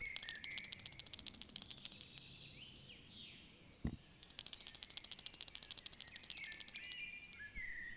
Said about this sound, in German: fragt Max sich und zieht noch einmal an der Klingelleitung.